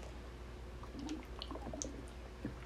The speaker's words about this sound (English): Alright, let me drink some water. Hold on.